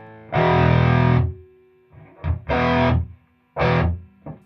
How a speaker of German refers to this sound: klingen die Amps nur, wenn die Röhren in die sogenannte Sättigung gefahren werden, also volle Leistung bringen.